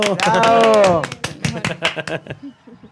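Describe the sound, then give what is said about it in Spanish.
A voice calls out a long, drawn-out cheer of "bravo", then a few people clap their hands in quick, uneven bursts that thin out and fade over a couple of seconds, applauding at the end of a program. “le pusieron el efecto de los aplausos. Nosotros lo hacemos, bravo.”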